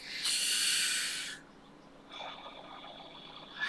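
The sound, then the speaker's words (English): Two deep, full, airy breaths: a long, loud rushing inhale, a short pause, then a softer, drawn-out exhale. No talking. “Can I take six deep breaths? That's all it takes to reduce that anxious feeling. Nice, six deep, full breaths here.”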